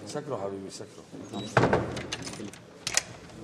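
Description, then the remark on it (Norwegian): A rebel soldier at a Free Syrian Army base shuts a door firmly with a solid thud partway through, set among voices and background activity. “Døren lukkes bestemt igjen av opprørssoldaten.”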